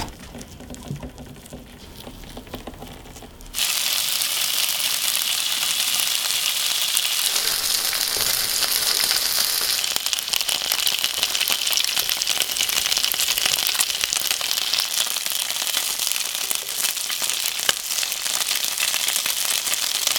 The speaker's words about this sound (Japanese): 今朝はアスパラのベーコン巻きのいい音それではお聞きください